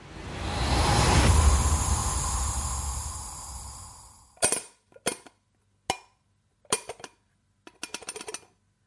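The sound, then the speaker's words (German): An empty coffee cup being handled at home, no longer able to be filled because the coffee has run out: a few seconds of steady rushing noise, then a series of sharp clinks and knocks at uneven intervals, with no one speaking. “So klingt übrigens bei Alexander Schlüter zu Hause eine Kaffeetasse, wenn sie nicht mehr mit Kaffee befüllt werden kann”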